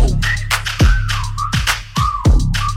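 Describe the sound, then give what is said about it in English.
Short whistled notes with sliding pitch repeat over a loud hip-hop beat, with deep booming bass hits dropping under each phrase at a steady rhythm. “Yeah, beat the pussy up, had to whistle like”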